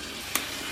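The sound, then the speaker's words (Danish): Coffee beans tumble inside a roaster drum as the coffee is being roasted, the drum moving the beans around: a steady rushing whir broken by two light knocks, spaced a little under half a second apart. “Man kan høre trumlen, som bevæger bønderne rundt.”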